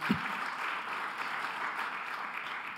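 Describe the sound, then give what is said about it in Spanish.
A crowd gives a loud round of applause to God during a sermon, clapping steadily for a few seconds in a dense wash of many hands at an even, moderate loudness with no one speaking over it. “Porque cuando nos volvemos personas radiantes e ilustres, cuando nos refugiamos en el Señor, del otro aplauso fuerte a Dios.”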